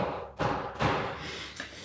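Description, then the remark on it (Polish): Two solid knocks of a cane on a wooden door, spaced about half a second apart, dull and thudding, with a steady low background hum and no voices. “Ja patrzę wyczekująco na Arta, czy zamierza znowu zapukać swoją laską w drzwi.”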